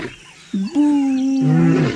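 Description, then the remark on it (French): A voice imitates a lion's mournful roar: a long, sustained, wailing moan, loud, holding a steady pitch before dipping lower and trailing off, with no other sounds around it. “Il y a très longtemps, dans la savane, un lion se lamentait.”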